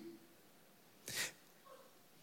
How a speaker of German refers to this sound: jetzt hat er hinten gehustet gerade. Jetzt lacht er.